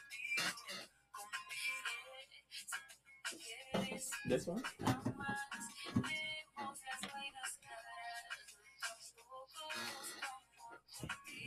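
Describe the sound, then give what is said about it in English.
A tinny song plays continuously from a phone speaker, its thin melody running under people talking, with a few sharp knocks and rustles partway through. “So I'm like, which phone is playing?”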